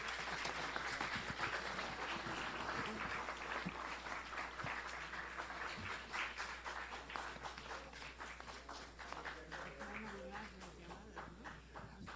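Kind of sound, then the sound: crowd, applause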